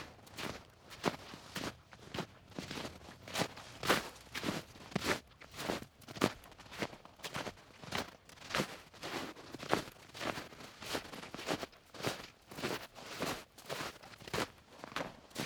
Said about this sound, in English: You've been listening to Boots in Snow, Griffey Lake, Bloomington, Indiana.